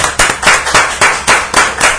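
A round of applause: loud, sharp hand claps in a steady, even rhythm, roughly eight in two seconds, with no voices over them.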